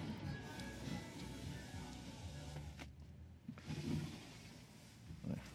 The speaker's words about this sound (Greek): αυτό που ακούσατε ήταν οι πόρτες, οι σειρώμενες πόρτες.